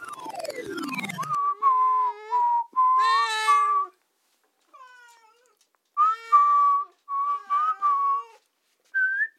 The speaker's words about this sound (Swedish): Det är en talang jag har. Eh, mm. Eh, det är bara det att min ena katt, Solveig, hon hatar när jag visslar. Alltså hon hatar det.